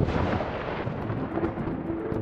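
A loud thunderclap rolls into a sustained, heavy rumble that stays strong for a couple of seconds, with no voices over it.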